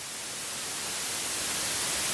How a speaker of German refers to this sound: Wir haben ja mal den Vergleich. Hier ist das weiße Rauschen